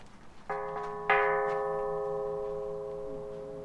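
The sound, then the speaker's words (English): A garden bell at the entrance gate, beside a drinking fountain, is struck with a knuckle a few times in quick succession, the last tap strongest, leaving a long, clear ringing tone that slowly fades. No one speaks. “Our self guided tour pamphlet instructed us to ring the bell with our knuckle to let the spirits know we are in the garden.”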